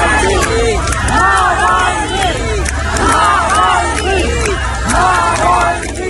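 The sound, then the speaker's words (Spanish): Thousands of people outside a church in Russia at the funeral of opposition figure Alexei Navalny chant his name in unison, rising and falling in repeated rhythmic waves of many loud voices over constant crowd noise. “Del exterior, en Rusia, decenas de detenidos a cuenta del funeral del opositor Alexei Navalny y miles de personas coreando su nombre a las puertas de la iglesia.”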